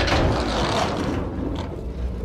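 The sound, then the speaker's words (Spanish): A heavy, rusty iron door between the platforms and an escalator grinds and screeches as it slides open to one side, a loud, continuous rough metallic scraping that lasts a couple of seconds with no voices. “La herrumbrosa puerta de hierro se deslizó chirriando hacia un lado, y quedó ante sus ojos una escalera mecánica relativamente corta que llevaba hasta arriba.”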